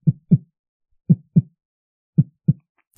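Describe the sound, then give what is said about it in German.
A deep, muffled heartbeat sound effect thumps in steady lub-dub pairs, three double beats at an even pace, heard alone with no voices, ending on a faint higher click; it plays in a scene with a glass demon, before the demon arrives. “wobei ich sagen muss, die Szene mit dem Glasdämon, die fand ich im Original besser, weil man da so dieses Herzklopfen hatte”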